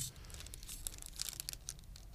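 A candy wrapper crinkles loudly and continuously, a dense run of sharp, bright crackles and snaps over about two seconds, with no voices.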